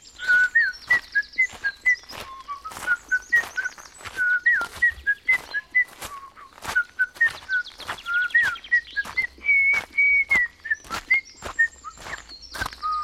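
man whistling a tune

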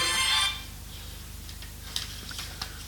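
mobile phone alarm ringing

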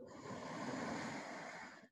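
deep inhaling breath

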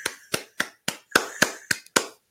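clapping sound effect

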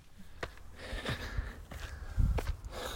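heavy breathing

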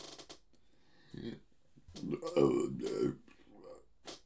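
burp

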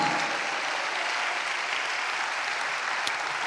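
audience applauding

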